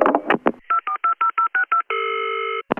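A phone number is dialed with touch-tone keys: about eight short, evenly spaced beeps in quick succession, then a longer steady electronic tone, with brief clattering at the start and end.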